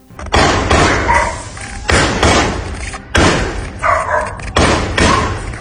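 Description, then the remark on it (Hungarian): Four loud gunshots fired into the air, spaced a second or so apart, each sharp crack trailing into a long rolling echo that fills the gap before the next. “Ezek a lövések csak a levegőbe mentek, előtte azonban egy ugandai miniszter helyettest a saját testőre megölt.”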